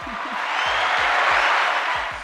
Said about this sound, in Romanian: Aplauze!